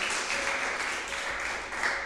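Sustained applause from a crowd, given to the Lord, a dense, even wash of many hands clapping at once that holds steady for the whole moment with no voices over it.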